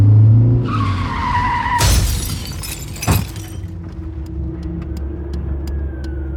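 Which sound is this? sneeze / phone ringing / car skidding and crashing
car skidding and crashing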